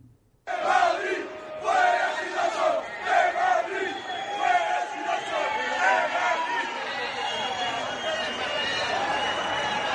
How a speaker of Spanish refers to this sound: Escuchamos el sonido de esas manifestaciones.